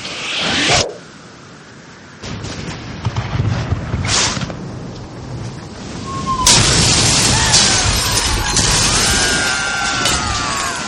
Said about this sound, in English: Quickly fire a barrage into their port side while they reload. Aye, aye, sir. Fire the cannons!